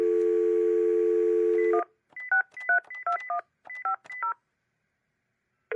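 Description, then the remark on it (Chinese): A steady telephone dial tone hums for nearly two seconds, then a rapid run of about eight short touch-tone beeps sounds at varying pitches as a number is dialed at night to call a mother, with no one speaking. “到了夜里，我实在受不了了，于是打电话给妈妈。”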